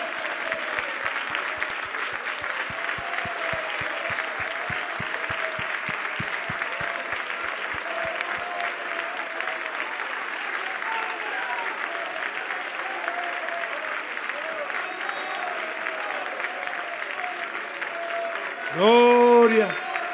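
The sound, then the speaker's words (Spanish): An audience at a church worship service applauds loudly and steadily for about twenty seconds, a dense wash of clapping with crowd murmur, ending with a brief louder vocal burst. “Demos un fuerte aplauso.”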